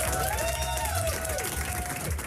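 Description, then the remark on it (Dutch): Continuous applause from a crowd, a dense, steady patter of many hands clapping with a wavering, whistle-like tone drifting over it, no speech; applause for the listeners of a radio show. “Maar wel even applaus voor iedereen die het al 16 jaar of korter met ons uithoudt.”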